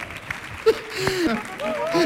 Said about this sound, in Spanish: fuerte aplauso para él, por favor.